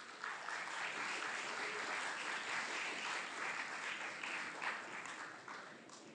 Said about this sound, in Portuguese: Eu gostaria que toda a igreja aplaudisse ao Senhor por isso.